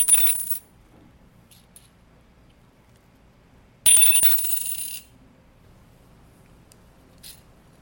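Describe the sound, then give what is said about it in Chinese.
A ten-yuan coin is dropped twice, each landing giving a bright metallic ring; the second ring is longer and fuller, sustaining about a second before fading, with a faint tinkle afterward. “直接来听一下十块的声音啦，好不好？”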